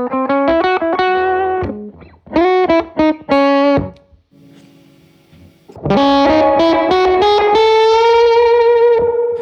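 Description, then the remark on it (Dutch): An electric guitar played through a volume pedal and effects, with loud, distorted phrases of quick notes, a brief quiet dip in the middle, then sustained ringing chords, and no voices. “ook heel veel met eh, dus dat volumepedaal. Oh, maar als je zacht zou aanslaan, dan raak je eigenlijk alle, alle herrie kwijt.”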